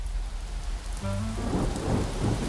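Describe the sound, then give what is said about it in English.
Heavy rain pours down steadily in a dense hiss, with a deep rolling rumble of thunder underneath that swells about halfway through. No voices are heard. “It was pouring rain.”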